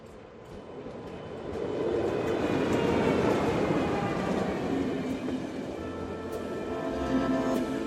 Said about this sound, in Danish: Rejs med DSB, når du tager toget. Vi er de eneste, der kører på de skinner.